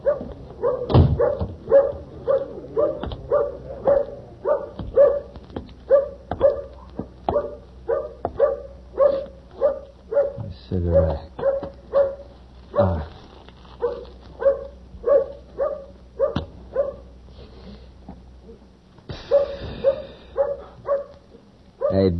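A dog barks steadily and rapidly, dozens of short yelping barks in a fast rhythm, close and loud, with occasional whimpering cries mixed in and a brief higher whine near the end.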